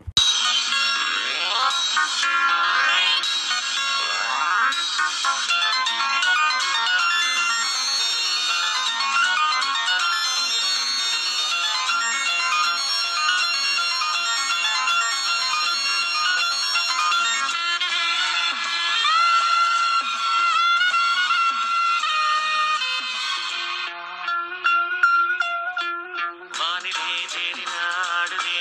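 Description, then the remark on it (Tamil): A film song plays from a recording, loud and continuous with dense, bright instrumentation and a thin, bass-less sound. The arrangement shifts abruptly near the end. “இந்த படத்தோட பாடல்கள் கேட்கும்போதெல்லாம் எனக்கு எப்படி அவங்க பண்ணாங்கிற மாதிரி ஒரு பெரிய ஆச்சரியம் எப்பவுமே இருந்துக்கிட்டே இருக்கும் இப்போ நீங்கள் இந்த பாட்டை கேளுங்க”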